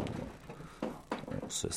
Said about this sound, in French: oh mon Dieu, la chaise craque, comme dirait l'autre.